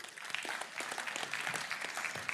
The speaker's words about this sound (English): You guys give him a round of applause.